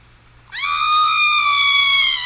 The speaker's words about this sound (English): Scream button. Sorry, Elio's just sitting on it.